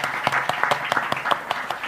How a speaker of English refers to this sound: This is, uh, you know, you, you deserve an applause for that, actually, really. So let's give him a good applause.